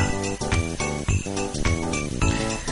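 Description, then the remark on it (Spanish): A bright video game key pickup jingle plays alone: a short, bouncy melodic tune of chiming tones over steady rhythmic beats, loud, lasting a few seconds. “Y dice, escucha, me escondido lo de de la llave.”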